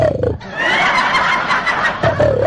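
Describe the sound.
A man's voice imitates a Bengal tiger's roar: one loud, rough, growling cry held for about two seconds, rising into a raspy snarl with strained harmonics before trailing off.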